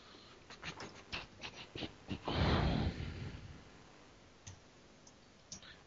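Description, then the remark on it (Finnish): A quick run of crisp keyboard clicks picked up by a microphone attached to the keyboard, then a louder rumbling thump, followed by a few scattered keystrokes. No one speaks. “Se on mi- mikki tuossa näppäimistössä kiinni.”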